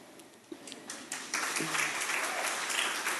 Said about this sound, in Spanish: Un aplauso para los solteros que lo van a hacer.